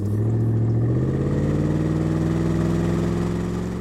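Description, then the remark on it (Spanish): A car engine runs steadily at low revs, its deep hum shifting slightly in pitch as the car slows while being parked in the garage of a house, then easing off as it settles into an idle, with no voices. “Richard se mantuvo detrás de María Hernández hasta que ella estacionó su coche en el garaje de su casa”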